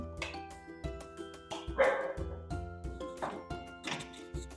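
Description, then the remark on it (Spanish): A dog barks several times in sharp, irregular bursts, loud, on the third floor of a building, with a steady rhythmic background noise underneath and no talking. “¡Ay, que tienes perro y todo!”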